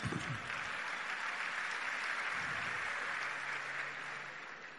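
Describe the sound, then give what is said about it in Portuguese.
Steady crowd applause fills the whole stretch, a dense wash of clapping that holds level and then eases slightly toward the end, with a few faint voices underneath. “Pode aplaudir, ó.”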